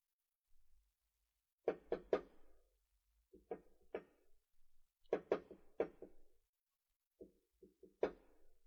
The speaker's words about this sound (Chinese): 敲门声随着意识渐渐远去。